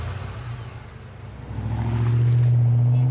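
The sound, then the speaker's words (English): A truck engine starts and rumbles at idle, then revs up and grows steadily louder with a deep, rising drone as the truck pulls away for home. There is no talking. “gets in his truck, and starts for home.”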